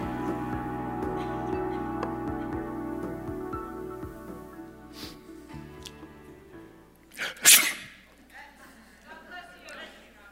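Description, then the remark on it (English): A single loud, sharp sneeze from a person bursts out partway through, brief, after a stretch of steady, low, tonal background sound that fades beforehand. “You ever wonder why, when someone sneezes, the response is God bless you or bless you, or if you're in Germany, Gesundheit?”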